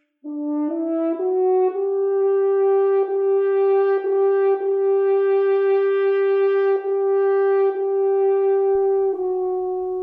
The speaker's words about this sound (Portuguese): E é através de sua Quinta Sinfonia que adentramos no naipe dos metais, começando por um instrumento que dispensa apresentações, a trompa.